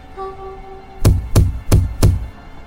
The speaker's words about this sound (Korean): 유리창을 때리는 소리가 들리기 시작했다. 내 주위에 앉은 사람들에겐 저것의 모습은 보이지 않아도 목소리는 들리지 않아도 소리는 들리는 모양이었다.